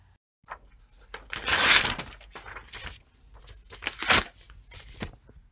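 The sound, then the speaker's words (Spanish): A sheet of paper is crumpled and handled, with bursts of crisp crackling and rustling, loudest near the start and again toward the end, and no voices. “En la actividad, la fuente sonora era la hoja de papel y pudiste reconocer algunos de los sonidos que puede emitir esta fuente sonora.”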